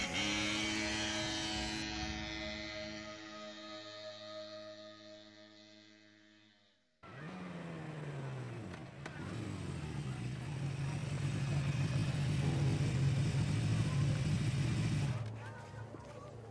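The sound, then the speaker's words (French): A small, old, rusty moped, which had been leaning against the wall of a small farmhouse, sputters with a steady buzzing tone, then cuts to a louder, rougher roar as it revs and speeds away, fading slightly at the end. “abandonna sa besogne et survint vers le vieux vélomoteur rouillé, appuyé sur le mur de la fermette. Il démarra en trombe.”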